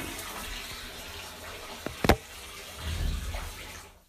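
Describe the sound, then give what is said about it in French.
Water runs in a steady, hissing stream into a bathtub, with no talk, broken by a couple of sharp knocks around the middle, then the flow cuts off abruptly just before the end. “Je vais couper bientôt euh, l'écoulement de l'eau parce que ça doit faire du bruit un peu dérangeant.”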